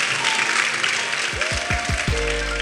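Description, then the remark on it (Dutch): An audience applauds steadily at the end of an interview at a festival, a dense, even wash of many hands clapping throughout; about halfway in, low sustained musical tones and plucked notes rise under the applause. “Mag ik een heel groot applaus op professor Esther Turnhout.”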